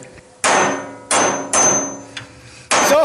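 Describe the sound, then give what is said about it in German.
Four loud hammer blows strike an old metal electric heater to repair it, at an uneven pace, each hit clanging with a brief metallic ring before fading; no one speaks. “Sie haben jetzt gerade mit dem Hammer die Elektroheizung äh, repariert?”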